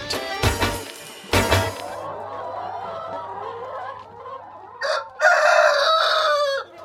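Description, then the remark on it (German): Hens cluck and a rooster crows on a Demeter egg farm near Wil with 1,500 hens and 30 roosters: sharp bursts early on, a steady murmur of clucking through the middle, and a long, loud crow near the end. “Die Hühner müssen den ganzen Tag singen. Wenn sie nicht am Fressen sind, muss es so tönen.”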